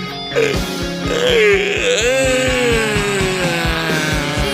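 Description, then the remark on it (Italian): A long, drawn-out yawn on a radio broadcast, with a wavering pitch that rises, then slides down into a groaning moan, heard over background music with a steady, thumping beat. “No, no, no, io, io, prima della fine della trasmissione voglio capire, fare questo esperimento radiofonico, se anche via radio lo sbadiglio è virale.”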